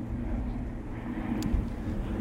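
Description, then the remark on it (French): A steady, low rumbling drone of airplanes flying overhead on a sunny day, continuous throughout with no speech, the deep roar holding fairly even and moderately loud from start to finish. “Il y a beaucoup d'avions aujourd'hui encore, hein, c'est fou.”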